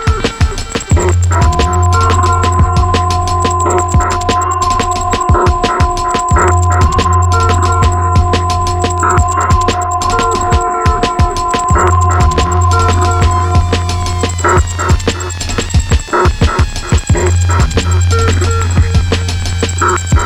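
An instrumental hip hop track plays loudly with a steady, repeating drum pattern over deep bass and held melodic tones, with no vocals or talking.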